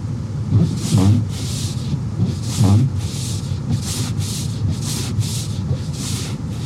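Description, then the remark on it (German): An ice scraper rasps across a windshield covered in thumb-thick ice at minus 6 degrees at 8 in the morning, in a steady series of about eight harsh, gritty strokes, each a loud hissing scrape, with a low rumble running underneath. “Und ich habe gerade schon ein bisschen gekratzt. Aber mein Eiskratzer ist räudig.”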